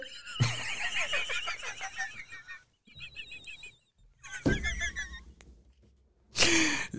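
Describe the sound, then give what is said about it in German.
A person imitates a rutting red deer stag as a dare in a game, letting out several loud, strained bellowing roars in separate bursts with short pauses between, with no talking. “Imitiere einen brunstigen Hirsch.”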